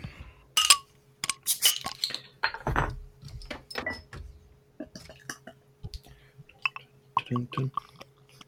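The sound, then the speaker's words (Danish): A 33-centilitre bottle of 6.5 percent beer is opened and poured into a glass, with clinks of glass, hissing fizz and small liquid splashes, followed by quieter handling sounds and faint murmuring. “Så øh, lad os åbne den og få den op i glasset.”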